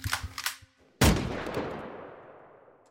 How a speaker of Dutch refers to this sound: En het is precies dat schieten dat Robbins specialisme wordt.